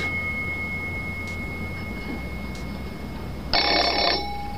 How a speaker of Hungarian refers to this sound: Az telefon.